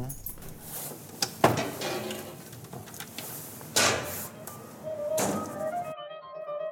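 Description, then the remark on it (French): A door in the flank of a dam is opened with a heavy thunk, some rattling and scraping of the latch, then a brief creaking tone as it swings; it opens onto a narrow corridor descending steeply toward the river. “La porte que vient d'ouvrir Franck débouche sur un étroit corridor qui descend à pic vers le fleuve”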